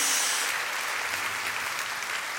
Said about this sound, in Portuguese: Pode dar um glória a Deus aí, dá uma salva de palmas ao Senhor em nome de Jesus.